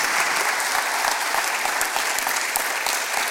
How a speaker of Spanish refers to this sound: Un aplauso fuerte.